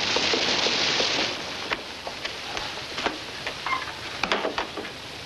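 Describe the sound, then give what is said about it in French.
Steady rain hisses loudly, easing slightly after the first second into a softer patter, with scattered sharp drips and taps landing. No voices. “et donc, elle arrive sous la pluie et elle veut une chambre.”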